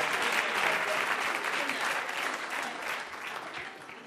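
A crowd applauds steadily, dense overlapping clapping that stays loud throughout and fades slightly toward the end, with no voices standing out.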